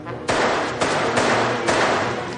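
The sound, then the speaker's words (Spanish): Four loud gunshots fired inside an apartment, hitting a man, crack out at uneven intervals, each blast ringing on with heavy reverberation, with no voices. “Sin ninguna duda de que algo pasa, sube al escuchar los tiros en el piso.”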